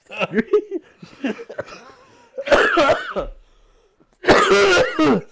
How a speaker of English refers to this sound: that's a secret cough right there, brother. No, I don't smoke cigarettes.